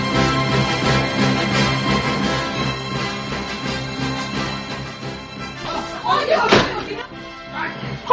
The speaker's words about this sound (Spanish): ¡Voy a cerrar la puerta!